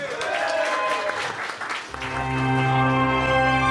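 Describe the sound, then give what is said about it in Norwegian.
A burst of lively crowd applause fills the first couple of seconds, then loud, sustained music with steady tones swells in and takes over as the clapping fades beneath it. “Gi en varm applaus til Lolbua!”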